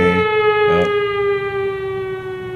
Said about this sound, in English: Ring the alarm. Ring the alarm.